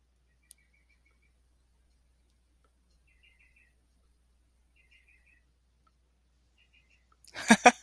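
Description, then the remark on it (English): Birds chirp at two o'clock in the morning in short, high trilling bursts every second or two against near silence, until a person's loud laughter breaks in at the very end. “the birds are up at freaking two o'clock in the morning.”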